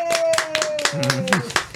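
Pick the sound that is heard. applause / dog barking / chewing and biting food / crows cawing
applause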